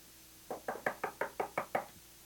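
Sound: knocking on a door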